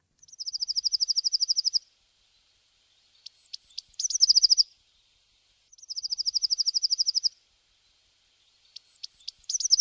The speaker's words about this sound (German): Genau, die Blaumeise. Interessant, dass die Vögel doch so unterschiedlich klingen.